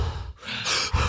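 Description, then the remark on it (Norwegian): A person imitates the heavy, ragged breathing of an athlete while running: a short breathy gasp, a brief pause, then a longer, harsh rushing exhale, loud and airy with no words. “De kan ikke puste sånn når de løper sånn.”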